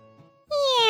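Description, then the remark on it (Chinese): A pet cat, playing with a person in a living room, lets out a single loud, drawn-out meow after a brief quiet moment, its tone bright and slowly sliding downward in pitch. “正在林恩撸猫之际，压手奈奈端着刚冲好的茶回到了客厅，看到林恩与自家猫咪玩耍在一起。”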